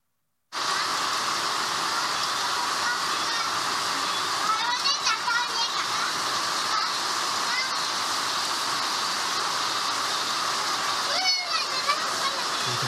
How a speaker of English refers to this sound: where during the rainy season, in the afternoon, just a heavy rainstorm came in, and we're going to show you what it was like to be inside that shanty and to be those children.